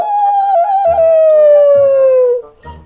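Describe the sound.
A person imitates a wolf howl: one long, loud howl that holds a steady pitch and slowly slides downward over about two seconds before breaking off.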